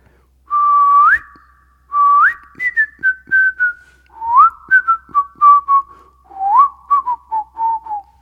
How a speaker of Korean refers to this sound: 오, 어, 어 휘파람 잘 부는 건 어떻게 알았을까요, 매니저님들이? 그러게요. 휘파람을 잘 부는 걸 어떻게 하셨을까요? 살짝 해보시겠어요? 휘파람? 휘파람이니까 휘파람을 하고 있어.